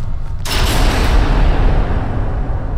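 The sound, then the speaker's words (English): An immense black door slams shut with a sudden, loud boom, followed by a deep rumbling echo that rolls on for a couple of seconds into a vast empty expanse. “As her chest burned and she was certain that she was going to pass out, the immense black door shut”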